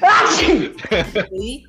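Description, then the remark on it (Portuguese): A single loud sneeze bursts out at the start, followed right away by laughter and a short spoken exclamation. “Saúde!”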